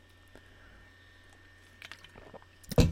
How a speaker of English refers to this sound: As I sip my sparkling white grape sparkling water.